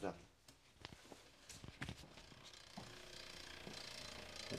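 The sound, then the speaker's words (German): A cyclocross bike's freehub ratchets with sharp, irregular clicks that come in quick bursts, set against a steady rushing background noise. “Hast du gemerkt, ich bin mit dem Crosser. Ist auch ein geiler Sound.”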